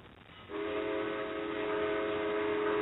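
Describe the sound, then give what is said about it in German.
A locomotive horn blares a steady, multi-toned chord as the locomotive passes with a Doppler effect. It starts abruptly after a moment of faint rumble and holds loud and unbroken to the end, with no voices. “Eine Lokomotive. Auch so ein Geräusch, wenn du überhaupt nicht weißt, was das da hört man den Doppler-Effekt.”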